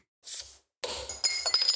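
A short fizzy hiss as a beer bottle is opened, followed by a bright clattering of glass bottles clinking together in a toast, with ringing tones, fairly loud, no voices.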